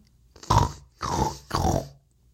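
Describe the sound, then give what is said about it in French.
Three nasal, snorting grunts in quick succession, a person imitating a pig through the nose in the silence of a game of playing dead, loud with brief gaps between each and nothing else around them. “… grogne comme un cochon avec son nez”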